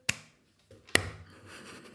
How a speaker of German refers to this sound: Ein kurzer Applaus. So, also, reicht auch wieder.